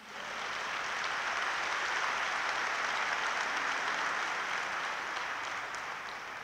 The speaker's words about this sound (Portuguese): Você pode dar salvas palmas para Jesus?